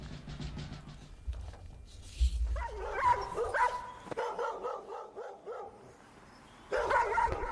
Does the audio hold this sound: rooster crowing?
no